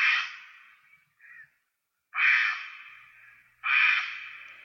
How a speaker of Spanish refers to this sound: Estamos escuchando a una garza que son muy ruidosas. Bueno, las garzas tienen un gran nido estruendoso.